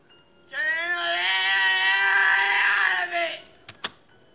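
A man lets out one long, loud, strained, raw scream held for about three seconds, a real scream at the start of a rock album's title track, then it cuts off, followed by a couple of brief knocks.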